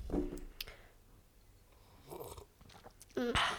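Someone knocks back a shot of ice-cold peppermint liqueur: wet lip smacks and a swallow, then a short, appreciative hummed "mm" at the end.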